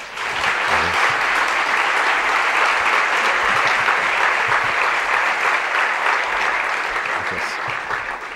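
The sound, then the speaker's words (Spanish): A conference audience welcomes the speaker with steady, sustained applause that fills the whole stretch, a dense wash of many hands clapping at an even, loud level without pause or voices over it. “Y bueno, pues sin más, dejarles con, con el doctor Moya y recibirle con un fuerte aplauso, como se merece.”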